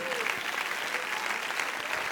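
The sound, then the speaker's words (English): A church audience claps steadily during a Sunday sermon, dense overlapping hand claps forming a continuous bright wash of applause with no breaks, holding an even level throughout. “Clap your hands like you believe that today.”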